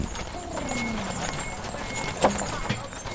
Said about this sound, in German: Als das schwere Pferdefuhrwerk vorbei poltert, hebt der Schindelmacher die Hand zum Gruß.